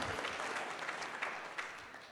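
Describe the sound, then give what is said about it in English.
A church audience applauds the interpreters who worked in all the services, many hands clapping in a dense, steady patter at moderate volume, easing slightly toward the end. “I'm thankful for our interpreters who worked so hard in all of our services, and give them a round of applause.”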